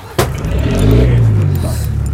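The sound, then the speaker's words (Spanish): A sharp knock gives way to a car engine rumbling and rising in pitch as it revs, fairly loud, with faint voices in the background. “Dame el carro, primo.”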